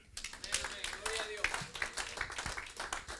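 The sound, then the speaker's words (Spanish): A church audience, including children, applauding together for the Lord, a dense, steady patter of many hands clapping for a few seconds, with scattered voices mixed into the noise of the crowd. “Un aplauso al Señor, amén.”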